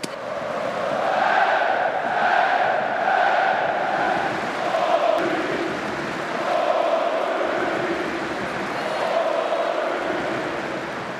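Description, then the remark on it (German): A large stadium crowd of Borussia fans roars and chants together before the match, in front of the south stand, rhythmic sung phrases rising and falling in waves over a dense, continuous wash of thunderous cheering and applause. “donnernder Applaus, Sprechchöre und das alles schon vor dem Spiel.”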